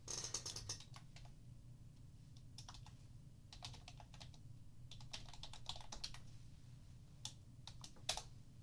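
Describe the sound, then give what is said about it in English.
Quick, irregular typing on a computer keyboard as someone tries to type a chat message: bursts of light, crisp key clicks with short pauses between, over a steady low hum. No one speaks. “I can't chat with you guys My chat's not working. Let me try to say something.”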